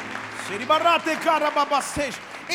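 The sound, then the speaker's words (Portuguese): An audience at a Portuguese-language church service applauds and cheers, shouting to the Lord, steady clapping blending with several loud raised voices shouting over it for a couple of seconds. “Se você crê nisso, dê um brado ao Senhor e aplaudo neste lugar.”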